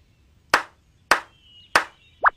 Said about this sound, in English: First, we tap with our feet, like this. Tap, tap, tap. And next, you clap with your hands, like this.